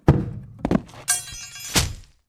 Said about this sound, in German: Natürlich war auch am Klavier schon lange nicht mehr aufgeräumt worden und so fielen erst mal einige Dinge zu Boden, als Erwin den Klavierdeckel öffnete.